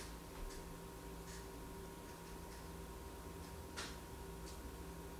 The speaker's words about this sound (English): if that's you, knock twice, then rub the wall, then knock once.